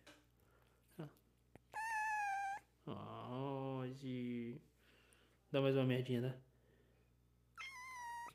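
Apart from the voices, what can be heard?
cat meowing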